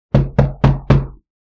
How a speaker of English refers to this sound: like just knock. Just knock. Knock.